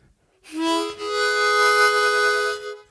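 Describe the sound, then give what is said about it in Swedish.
A harmonica plays two sustained, reedy chords: a short blast, a brief break, then a longer held tone about two seconds long before it stops. No one speaks. “har massa olika munspel.”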